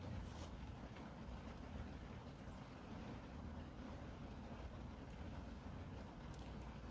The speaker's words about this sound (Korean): 여러분, 그리고 지금 비 소리 들리세요? 비 소리?